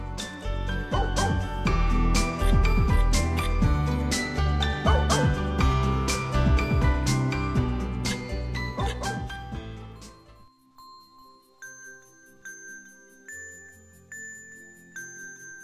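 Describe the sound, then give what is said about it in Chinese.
Many dogs bark and yip together in a loud, overlapping chorus from the distance for about ten seconds, then the barking stops and a soft, tinkling chime melody plays alone. “宝贝儿，你如果在晚上听到远方传来很多狗一起汪汪叫的声音，或许真的是狗在叫，不过也很可能是那个奇怪小镇上的居民发出的声音呢。”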